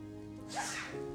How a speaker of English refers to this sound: Bless you. God bless you.